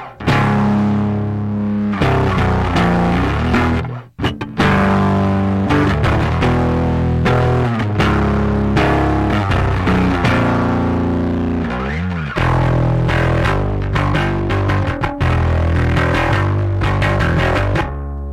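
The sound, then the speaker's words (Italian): Heavily saturated overdrive guitar, the effect placed before side A of the unit to push side A's gain even harder, without the low pass filter, playing thick, sustained distorted chords and riffs that stay loud and dense throughout, with a brief cut around four seconds. “Per cui se io lo metto prima come adesso, vado a spingere ancora di più il gain del, del lato A. Quindi saturo ancora di più.”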